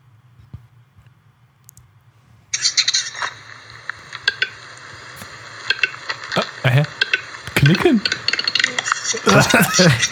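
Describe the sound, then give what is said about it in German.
A capercaillie gives a series of sharp, irregular clicking calls, fairly loud, over a steady background hiss, with a denser burst of clicks toward the end. “Wenn ich das in der Wildnis hören würde, würde ich nicht denken, dass das von einem Huhn kommt.”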